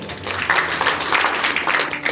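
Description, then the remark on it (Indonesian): An audience breaks into steady applause for Jesus, many hands clapping together in a dense, even wash of sound that holds at a fairly loud level for a couple of seconds. “Bukan karena Tuhan kurang hebat, karena mungkin kita harus jawab lagi hari ini siapa Yesus yang sesungguhnya boleh tepuk tangan buat Yesus.”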